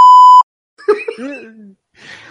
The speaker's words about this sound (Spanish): Lo de la broma de antes le iba a poner un pitido, ¿no?